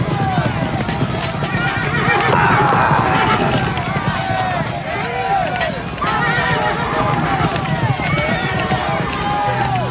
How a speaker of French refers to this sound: Écoutez, on entend les chevaux.